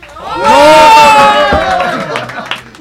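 A group breaks into loud cheering and whooping with clapping mixed in, swelling quickly and holding strong for a couple of seconds before thinning out into scattered shouts and claps.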